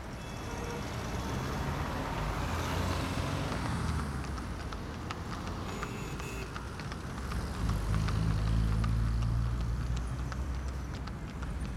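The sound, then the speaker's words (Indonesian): Steady road traffic roars throughout, a dense low rumble of passing vehicles with scattered clatter and clicks, swelling louder in the second half as something heavy passes. No voices. “Deru, deram, dering lalu lintas tak kuasa membangunkannya.”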